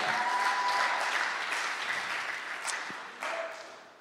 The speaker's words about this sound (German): Gebt nochmal einen richtig fetten Applaus an Dominik von letzter Woche. Richtig cool.